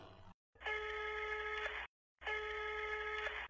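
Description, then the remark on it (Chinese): A telephone rings in two long bursts of about 1.3 seconds each, separated by a short silence, with a steady, bright electronic trill. No one speaks. “你再打电话，你看着。”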